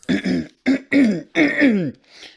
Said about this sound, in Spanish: aquí que carraspeando un poco.